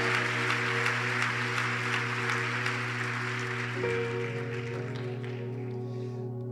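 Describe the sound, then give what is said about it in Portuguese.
A church audience applauds steadily, a dense wash of clapping over a sustained organ or keyboard chord that holds beneath it, the clapping thinning slightly near the end. “Se é para mim, não precisa nem aplaudir, mas se é para ele, faz direito, igreja.”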